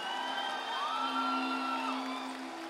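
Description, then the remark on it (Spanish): A standing church audience shouts and cheers together in praise of the Lord, a sustained, dense roar of many voices, with rising whoops riding over the noise, fairly loud and steady throughout. “Es más, ponte de pie, y dale un grito de gloria al Señor.”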